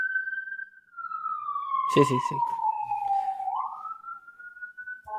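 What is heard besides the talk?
ambulance siren passing by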